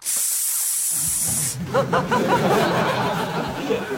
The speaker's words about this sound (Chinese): 所以呢，俺们现在都一人拿大水枪，哈，嗯，这看到有炉子点了，那那拿水把它呲灭不就行了吗？